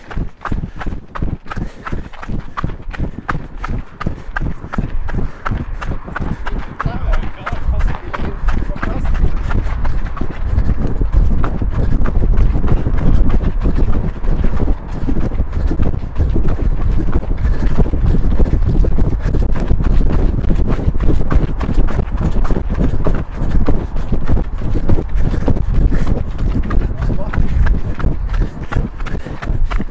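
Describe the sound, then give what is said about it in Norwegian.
Many rapid footfalls from several people running hill intervals together, a dense, steady patter of steps for the whole stretch, with low wind rumble underneath and no talking. “Og så var vi ute og løp bakkeintervall med de.”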